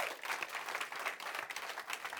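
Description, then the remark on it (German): An audience applauds for Jesus with dense, steady clapping that fills the whole stretch without pause, a bright crackling wash of many hands at a moderate level, with no speech on top. “Geh mal Jesus einen Applaus.”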